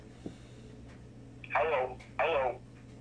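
Two bursts of a warbling electronic phone ring come through as an outgoing call waits to be picked up, each about half a second long with a short pause between, fairly loud over a low steady background hum.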